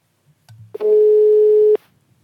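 A single steady telephone ringing tone sounds for about a second, loud, clicking on and off sharply, preceded by a few faint low thumps, as an outgoing call is placed.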